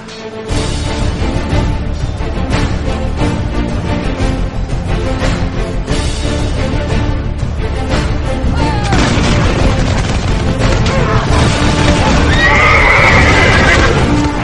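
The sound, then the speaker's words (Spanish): A loud, dense battle din of cavalry horses charging, neighing and pounding hooves across a battlefield, with sharp bursts of pistol fire cracking through the constant roar as riders wielding two pistols fire point-blank at pikemen. “Por grupos, a medida que la columna surcaba el campo de batalla, los jinetes, usando ambas manos para blandir las pistolas, comenzaron a abrir fuego a bocajarro sobre nuestros enemigos.”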